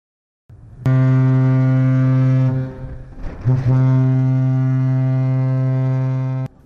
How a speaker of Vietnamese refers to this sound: Sau hồi còi dài tạm biệt đất liền, tàu Trường Sa 571 thuộc Hải đội 411, Lữ đoàn 955 rời quân cảng Cam Ranh đưa đoàn công tác chúng tôi tới chúc Tết quân dân các điểm đảo Trường Sa.